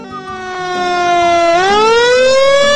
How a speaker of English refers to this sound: Look, here comes the fire engine, says one little monkey.